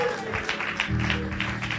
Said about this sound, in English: Clap your hands and shout glory to God.